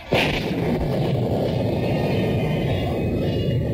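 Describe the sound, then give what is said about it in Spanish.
A sudden burst of thunder from an approaching storm over open countryside breaks in, then rolls on as a loud, deep, continuous rumble for several seconds with no voices over it. “Es indudable que se avecina una tormenta.”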